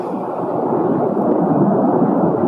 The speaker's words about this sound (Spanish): Y la onda de choque es lo que ahí está, lo que nosotros escuchamos.